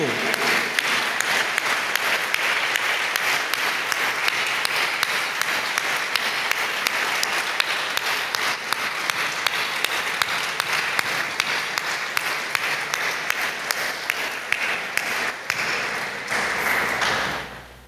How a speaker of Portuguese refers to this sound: Podemos aplaudir ao Rei dos Reis a esta ressurreição, o Cristo ressurreto.